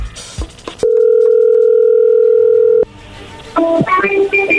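A steady, loud telephone dial tone holds for about two seconds, then cuts off. After a brief pause, a quick series of higher-pitched keypad dialing beeps follows as a phone number in Colombia is dialed.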